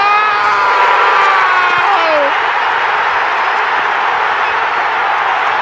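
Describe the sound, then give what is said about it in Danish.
A huge football stadium crowd roars in a sustained, loud eruption of cheering and shouting as Manchester City score to make it 3-2 with the last kick of the match and win the Premier League. A rising excited voice is audible at the start before the wall of noise fills everything. “Han sparkede den ind i det hjørne og gør det til 3-2 i det sidste spark i kampen.”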